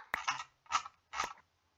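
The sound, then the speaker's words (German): Three short bursts of rapid computer mouse clicking, each a dense crackly flurry lasting a fraction of a second, separated by brief pauses, with no voices. “Es kommen schon so ein paar Klicks an.”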